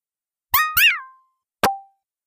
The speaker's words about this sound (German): Und dann greift er sich so an den Kopf und quiekt, also einen quiekenden Soundeffekt, und schüttelt den Kopf immer schneller, bis er dann auf einmal explodiert.